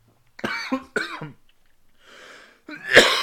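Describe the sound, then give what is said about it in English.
Two sharp coughs in quick succession from someone who swallowed beer the wrong way, a raspy breath drawn in, then another harsh cough bursting out at the end, with no talking. “I swallowed some beer the wrong way.”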